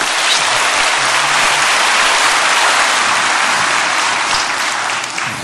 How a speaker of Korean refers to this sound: 할렐루야 우리 하나님께 감사의 박수 올려드립니다